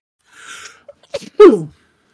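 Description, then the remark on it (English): A single loud sneeze: a breathy intake builds up, then a sharp explosive burst that tapers off quickly, with no talking around it. “Bless you.”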